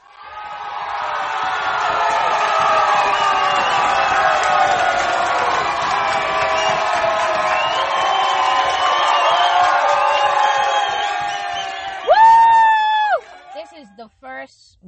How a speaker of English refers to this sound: So let's do the whole cheering thing, and then we'll get back to the, you know, y'all know the drill.